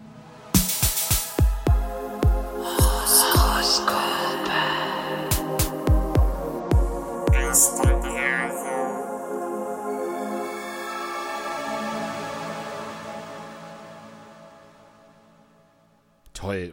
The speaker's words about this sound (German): wir hören jetzt dein Horoskope-Jingle. Genau, für die, für unsere Rubrik. Und das klingt so.